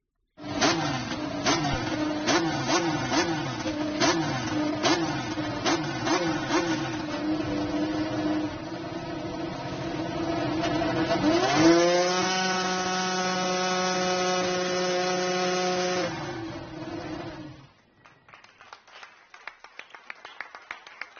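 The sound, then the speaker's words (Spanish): A Renault Formula 1 engine for McLaren, to be driven by Carlos Sainz and Lando Norris, sputters and crackles through a rough start, then catches and holds a loud, steady, buzzing whine for several seconds before cutting off, followed by a few scattered claps from the team. “Y un clásico es el arrancado de los motores”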